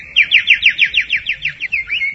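A bird trills clearly, a rapid series of about a dozen bright, sweeping notes in a steady rhythm, ending in a short upward twist, with no talking.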